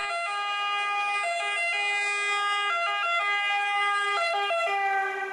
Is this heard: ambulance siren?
yes